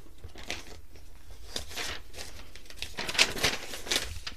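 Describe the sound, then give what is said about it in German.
Soft crinkling and rustling of a paper note, a handwritten letter, being picked up after it fell, with several brief sharper crackles near the end, quiet overall and with no talking. “oh, jetzt ist da glatt mein Zettel runtergefallen.”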